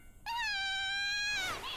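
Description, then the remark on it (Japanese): A baby, upset by a stranger's voice, lets out one long, high-pitched wailing cry, held steady for about a second before bending downward and trailing off. It's loud, with no talking. “ごめんなさいこの子知らない人の声がするとダメで赤ちゃんは泣いている方が赤ちゃんらしくて絵になりますよ”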